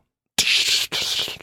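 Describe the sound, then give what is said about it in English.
Glass shatters in two quick noisy bursts, a harsh crunching crash followed by a brief pause and a second clattering wave of breaking shards, loud with no talking. A glass Chemex coffee maker breaking below a coffee station, knocked down by a cat. “Uh, That's the sound of glass breaking.”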